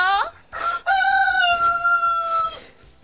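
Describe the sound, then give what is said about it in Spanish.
A rooster crow played by Google Assistant on request: a loud short rising note, then a long sustained cock-a-doodle-doo that drops off at the end, with a brief cluck beforehand and no talking. “Como asistente todo lo hago si me lo pides. suelto hasta un gallo.”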